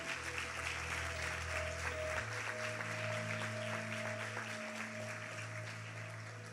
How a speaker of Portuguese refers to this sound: Vamos aplaudir essa moça ali, ó.